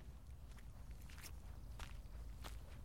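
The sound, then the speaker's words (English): Steady footsteps walk along at an unhurried pace, each step a soft crunch over a constant low outdoor rumble, with no voices. A person walks back towards campus alone as it gets dark under a gray sky. “It's getting dark, so I'm walking back towards campus.”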